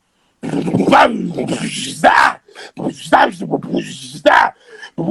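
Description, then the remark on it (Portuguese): A voice imitates a full drum kit played all together, loud, with a rhythmic run of booming kick-like grunts, sharp snare bursts and hissy cymbal sounds over about five seconds. “Aí, quando o ser humano vai tocar tudo junto, agora passa tudo.”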